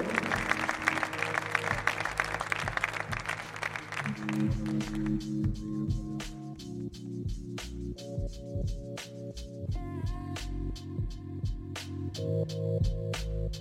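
A crowd applauds loudly for performers for a few seconds over a musical backing, then the clapping gives way to a steady beat with sharp percussive hits and sustained tones.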